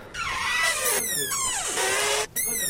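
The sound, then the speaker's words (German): A loud, continuous high-pitched squealing and screeching, like a bus squeezing through a narrow gate, with the pitch gliding up and down and one brief break near the end. “Ja, das Original Bus quetscht sich durchs Törchengeräusch.”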